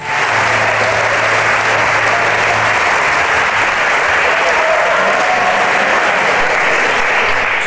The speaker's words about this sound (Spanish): Desde su tierra amada le entregamos un aplauso como homenaje a su vida, a sus enseñanzas, a sus ejemplarizantes acciones y a su recuerdo.